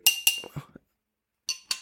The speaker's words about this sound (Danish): festlighederne, at de starter med en øh, åbning af en limfjordsport. Så har man ligesom noget at glæde sig til, når man skal i gang med det her, at man lige kan åbne sådan lækker bisken.